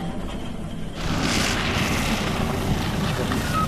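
Loud, steady strong wind roars across the microphone in Akçadağ, Malatya, Turkey, a dense rushing buffet that surges stronger after the first second and keeps blowing without pause, with no voices.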